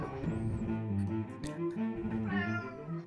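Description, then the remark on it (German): A person imitates a cat, voicing three drawn-out, wavering meows in a row, fairly loud, with no other talking around them. “Folge 55 mit einem dreifachen Miau.”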